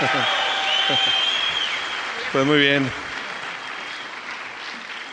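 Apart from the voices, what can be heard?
audience applause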